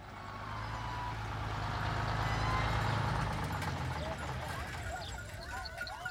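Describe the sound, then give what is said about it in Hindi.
A heavy truck loaded with electric poles arrives in a village, its low engine drone swelling steadily over several seconds before easing off slightly, with faint voices murmuring in the background near the end. “एक दिन गांव में खंभों से भरी हुई गाड़ी पहुंची इसे देख गांव में हलचल मच गई”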